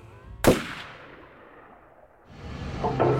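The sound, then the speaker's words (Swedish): A single loud, sharp gunshot cracks out and rings off, followed by a stretch of rumbling noise that swells again with a couple of fainter pops near the end. The shots come from a dark Chevrolet Impala SS pulled up alongside a car stopped at a red light, at Fairfax and Wilson. No one speaks. “Okay, they drove up next to us and just shot us the car and passed us side.”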